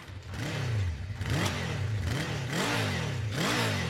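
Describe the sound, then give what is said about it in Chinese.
A motorcycle engine revs repeatedly, its pitch rising and falling in several loud surges over a steady rumbling idle, with no voices present. “跟我一起兜风吧，聪明的小朋友，你猜对了吗？我就是摩托车。”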